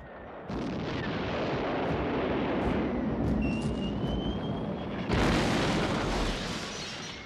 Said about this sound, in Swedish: Det var ett förfärligt eh, tjutande och knallande och eh, brummande av flygplan. Men framförallt så hörde man ju när bomberna liksom eh, ner med, med sånt förfärligt ljud och sen den här enorma smällen.